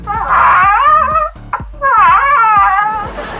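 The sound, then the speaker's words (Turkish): A voice imitates the creaky-door call of a male deer seeking a female in the mating season: two loud, drawn-out, wavering groans, separated by a brief pause, with the second call trailing off rough and breathy. “Alo bu üreme dönemlerinde dişi ararken kapı gıcırtısı sesi çıkartan erkek geyiklerden biriyle mi görüşüyor?”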